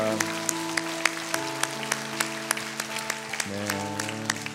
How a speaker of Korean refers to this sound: 우리 이분들을 위해서 축하의 박수 사랑의 박수 올려드립니다